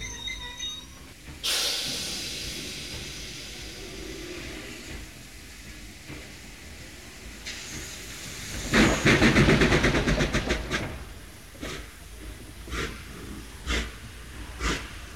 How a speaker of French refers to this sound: Le train à vapeur, une des modernisations les plus prometteuses, raccourcissait les distances, instaurant une nouvelle forme de concurrence par la circulation des marchandises et par une transhumance humaine sans précédent.